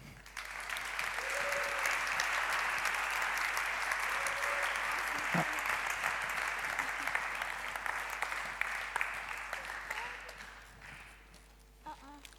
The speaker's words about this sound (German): Bitte begrüßt mit einem warmen Jesus-Treff-Applaus